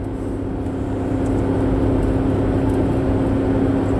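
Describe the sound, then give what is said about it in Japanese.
A Honda Vamos kei van's engine runs steadily at a low, even idle, a modest droning hum with a faint tonal whine, growing slightly louder after the first second and continuing without talk. “非常にこう奥ゆかしいエンジン音ではきっと満足しないんだろうなとは思いますがどうなんでしょうね”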